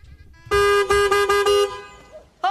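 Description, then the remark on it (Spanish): A car horn honks loudly in a quick series of about five short, evenly spaced blasts, then falls quiet before another honk starts at the very end, with light street noise underneath. “Oiga, ¿por qué toca el claxon de esa manera?”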